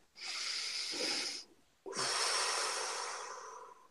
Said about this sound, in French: On va dire ensemble, alors, une respiration.